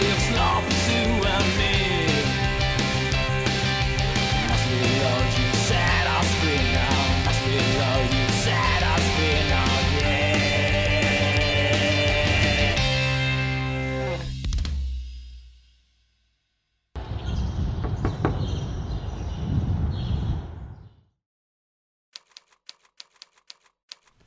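A loud, dense metal song with heavy distorted instruments plays on the Metal Zone show, then fades out. After a brief silence a short, noisy burst follows, ending in scattered faint clicks.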